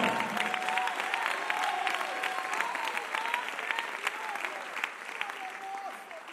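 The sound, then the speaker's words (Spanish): A church audience applauds Jesus during worship, a dense wash of many hands clapping at an even loudness throughout, with faint voices calling out and a few brief whistles or shouts mixed in. “Si le vamos a aplaudir, aplaudámosle con todo el corazón.”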